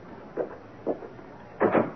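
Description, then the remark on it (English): A door being shut: two soft, muffled bumps followed by a louder double clunk as it closes, with no talking. “I think I better close the door.”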